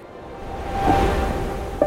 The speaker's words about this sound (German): Meeresrauschen.